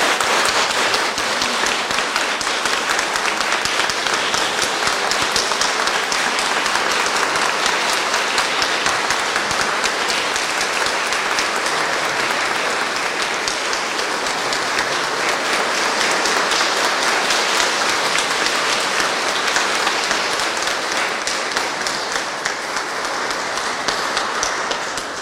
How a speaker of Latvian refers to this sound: Šodien viņa priesterības jubilejā apsveicam visi ar aplausiem!